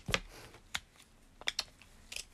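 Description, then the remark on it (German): Someone sharpens a colored pencil while drawing: a handful of short, dry scraping crackles at irregular intervals, fairly quiet, with near silence between them and no talking. “Ah, Gelb brauche ich auch noch, aber ich, mach, ich muss einfach meinen Stift anspitzen.”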